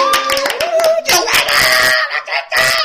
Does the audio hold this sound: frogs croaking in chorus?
no